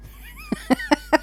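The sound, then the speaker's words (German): A quick series of four short coughs in an even rhythm from a person with bronchitis, each a brief voiced burst, with no talking around them. “Wer hat hingehustet?”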